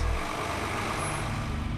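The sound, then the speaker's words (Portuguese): Steady low rumble of heavy traffic on the Dutra highway in Brazil, on the Rio stretch, which carries over 100,000 vehicles a day between the country's two largest capitals. Truck engines drone continuously over a broad wash of tire noise, loud, with no voices. “O movimento intenso na estrada é o retrato da riqueza entre as duas maiores capitais do país.”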